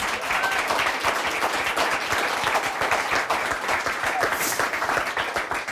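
Steady, dense applause from an audience at an author's book talk, many hands clapping at once in a continuous, even roar that holds at the same loudness for about six seconds.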